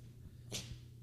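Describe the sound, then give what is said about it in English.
A dog named Griffin sneezes once, a quick, sharp, breathy burst over a low steady hum underneath, and no one speaking. “And bless you. Bless you, Griffin.”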